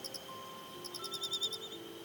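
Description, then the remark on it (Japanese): A bell cricket chirps in quick, evenly spaced high ringing pulses, with a short burst, a pause, then a longer run, fairly quiet over faint steady background tones. No one speaks. “はいはいではスズムシ”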